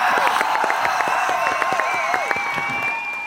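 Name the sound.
applause and cheering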